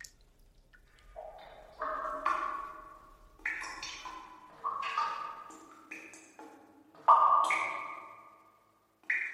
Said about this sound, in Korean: 어, 잠깐만. 어디서 물 떨어지는 소리 안 들려? 이지복 씨, 천장 새는 거 아니야?